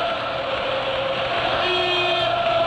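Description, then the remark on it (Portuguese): A berrante cattle horn blows a long, steady, droning note at the start of the River Plate club anthem, loud and unbroken, with a second lower tone joining partway through. No one speaks. “Começa com berrante, é assim mesmo?”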